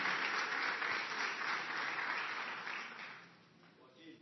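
A crowd claps steadily in a dense, continuous burst of applause that fills the room, then gradually thins and fades over the last second or so.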